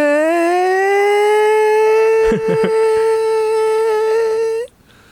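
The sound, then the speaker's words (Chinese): A loud air raid siren wails on one steady, rich tone that rises slightly at the start, holds for about four and a half seconds, then cuts off abruptly. “防空警报是不是？”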